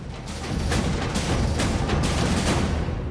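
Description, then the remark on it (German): In a percussion battle on a film soundtrack, several drummers pound a whole truckload of different drums together in a dense, loud barrage, with heavy booming low hits landing in a steady rhythm and nothing else audible over them. “Und dann sind da noch spektakuläre Percussion-Wettkämpfe, ausgetragen von mehreren Drummern mit einer ganzen LKW-Ladung an unterschiedlichen Trommeln.”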